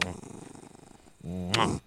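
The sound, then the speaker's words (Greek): A pet named Ramona growls: a low, pulsing rumble that fades slightly, then a louder, more tonal growl swells briefly before cutting off. “Ο Ραμόνα, ξέρετε, γρυλίζει σε τρει περιπτώσει.”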